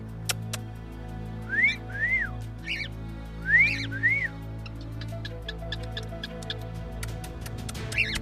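Soft background soundtrack music: a steady low drone beneath repeated pairs of rising, whistle-like notes and light scattered ticks, with no voices.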